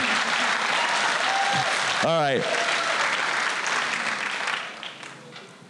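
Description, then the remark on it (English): A room full of people at a live show applauds steadily for Brandon Donlon, a dense wash of clapping that holds strong before tapering off near the end. A man's voice briefly speaks over it midway. “Can we get another round of applause for the number one 17th place of the new era, Brandon Donlon?”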